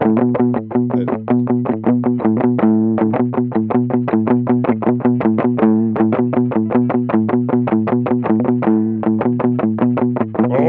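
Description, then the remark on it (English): A loud, driving rock riff on heavily distorted electric guitar, chugging in tight, rapid repeated notes with a steady rhythm throughout, no vocals. “…. That could be ….”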